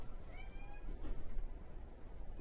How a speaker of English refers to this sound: Dude, he just came up to me and just started. Can people could people hear that over my microphone? I really hope they could hear that meow just now. That was a desperation meow right yeah, there.